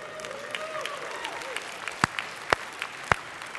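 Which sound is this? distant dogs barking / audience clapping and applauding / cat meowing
audience clapping and applauding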